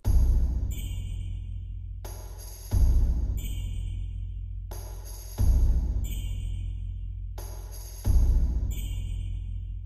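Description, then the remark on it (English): Jingle bells shake in a steady, bright rhythm while a deep bass drum booms four times, playing whole notes at the start of each measure, each hit ringing out long and heavy beneath the jingling. “Um, and I also have the bass drum, and that's just playing whole notes right at the beginning of each measure.”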